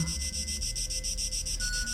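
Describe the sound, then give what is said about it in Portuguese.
Steady, continuous buzz of powerful aircraft engines in flight over the open sea along the coast, with a deep low rumble and a rapid pulsing high whine, droning evenly throughout at moderate loudness with no one speaking. “De vez em quando, ouve-se o zumbido dos potentes motores.”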